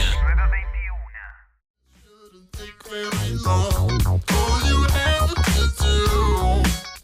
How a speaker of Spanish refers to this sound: Perdón, escuchaba la cortina. Cuando se baja así repentinamente es porque tenemos que entrar para escabullirnos en el aire.